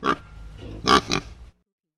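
A pig grunts and oinks three times in quick, uneven bursts, fairly loud, with no talking, and the sound cuts off abruptly after about a second and a half.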